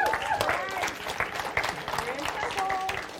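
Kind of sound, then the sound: crowd, audience applause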